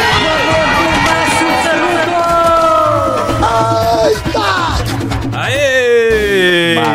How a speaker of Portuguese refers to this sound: Solta a vinheta. Faz barulho aí!